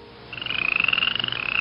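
Three toads croaking in a bathroom in a fast, steady trill of high, buzzy pulses that starts after a brief quiet moment and continues loudly to the end, with no voices.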